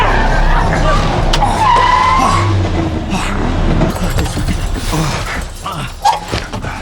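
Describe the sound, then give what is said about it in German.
A car swerves and skids to avoid another car driving in the middle of the road, nearly hitting a tree, its tires letting out a high, drawn-out screech over a loud, rough engine roar that fades slightly toward the end, with a short cry near the finish. “Der fährt ja mitten auf der Straße. Der weicht ja gar nicht aus.”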